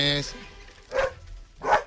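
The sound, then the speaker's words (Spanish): A dog at the house barks twice, a second or so apart, the sharp yaps fairly loud, with a brief tonal voice-like sound just before the first bark. “Yo tengo un perro aquí en la casa nuestra.”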